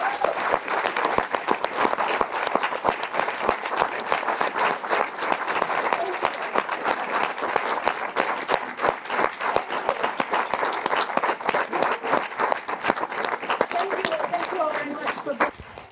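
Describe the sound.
Sustained audience applause, a dense patter of many hands clapping steadily for about sixteen seconds at an even, fairly loud level, with voices faintly mixed in and a slight tapering near the end.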